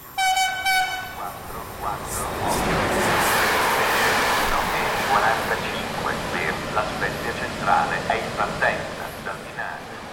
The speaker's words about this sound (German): Mit dem Zug fahre ich im Sommer 2018 vom Dörfchen Framura durch viele Tunnel und entlang der spektakulären Küste der Cinque Terre in die Hafenstadt La Spezia.